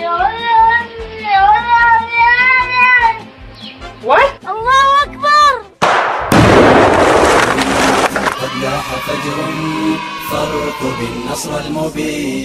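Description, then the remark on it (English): A cat in Syria lets out a series of long, wavering meows and yowls, followed by a sudden burst of loud noise and a busy, clattering background. “And last but not least, there's this creepy little guy known as the ISIS terrorist cat from deep in the heart of Syria.”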